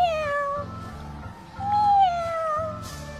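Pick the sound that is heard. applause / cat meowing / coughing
cat meowing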